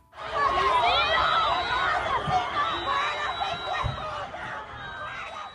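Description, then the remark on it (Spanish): A loud crowd in Colombia angrily shouts "asesino" (murderer) in a dense, overlapping roar of many voices, with high-pitched cries rising above the steady din, as a police armored vehicle and patrol cars take Uribe Noguera away at 5:32 pm on Tuesday, December 6. “bajo gritos de asesino, asesino, asesino, a las 5 y 32 de la tarde del martes 6 de diciembre, una tanqueta de la policía y varias patrullas como escolta recogieron a Uribe Noguera y salieron rumbo al centro de la ciudad”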